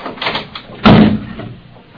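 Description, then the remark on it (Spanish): A door is opened: a soft rattle of the handle, then a solid knock-like thud as it swings and bumps, fading out quickly with no voices. “Abreja, que no oyes. Abre,”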